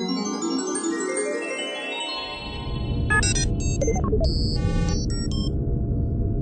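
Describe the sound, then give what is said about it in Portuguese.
A steady low electronic hum from the instruments inside a spaceship traveling toward the Moon, joined by soft rising tones and clusters of quick beeping blips midway. “Só o barulho suave dos instrumentos do comboio.”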